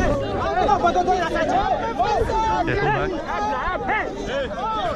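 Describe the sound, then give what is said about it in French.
A dense crowd of about 130 to 140 agitated people on a crowded boat awaiting rescue chatters and shouts over one another continuously, many talking at once, loud, with no single voice standing out for long. “Ok, let's just pull back and wait till they calm down, then we'll come back. Sans silence, no rescue.”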